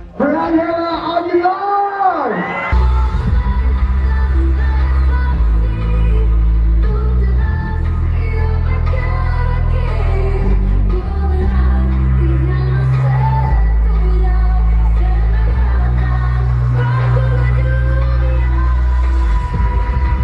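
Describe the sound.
A solo singing voice opens before a heavy electronic track kicks in with deep, pounding bass, the vocal continuing loudly over the dance beat amid a lively club crowd.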